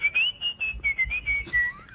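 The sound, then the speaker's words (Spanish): A person whistles a short, wavering melody, the pure tone sliding between notes in a series of phrases, with faint low background noise and no speech. “¿Es el silbidito?”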